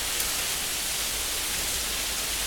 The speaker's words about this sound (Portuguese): Mas, porra, verãozão. Essa é a famosa chuva pega peão, né? Que é aquela chuva que cai no. assim, entre 5 e meia e 6 e meia da tarde para pegar bem a pessoa que está saindo do trabalho.